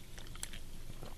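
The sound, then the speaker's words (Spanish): Someone quietly sips a beer, with soft wet mouth sounds and a brief sharp click near the end; no one speaks. “Cuando ustedes le tomen a la cerveza y luego la vean, es que está buena.”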